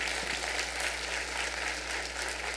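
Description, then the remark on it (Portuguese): An audience at a morning church service in São Paulo applauds the Lord together, a dense, steady wash of many hands clapping at an even level throughout, with no voices standing out. “Nós podemos aplaudir o Senhor, aquele que nos salvou.”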